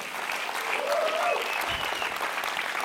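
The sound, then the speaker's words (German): An audience at Vision Sunday applauds with dense, steady clapping that holds at an even, fairly loud level throughout, and a faint voice briefly rises above the crowd noise. “Ich würde euch gerne auch in dieser Message immer einen Applaus geben.”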